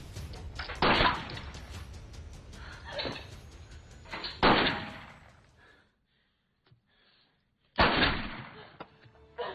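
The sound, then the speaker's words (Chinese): A sharp, booming gunshot, fired by a wounded police officer inside a police station, bursts out after a brief near-silent pause, following several earlier heavy bangs and thuds against a low, rumbling background. “忽然轰的一声枪响。”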